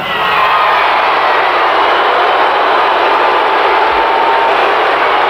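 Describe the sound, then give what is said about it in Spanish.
A huge concert crowd roars with sustained, near-unanimous booing at a singer who has just come on stage, a loud continuous wall of jeering voices that stays steady throughout with no individual words standing out. “Dice que le vienen casi ganas de vomitar delante de ese abucheo casi unánime”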